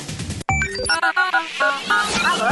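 A short radio jingle for the 'Central de ouvintes' listeners' segment of a Brazilian radio show: bright, bouncy electronic tones in quick stepped notes after a brief pause, ending with a rising swoosh, no talking.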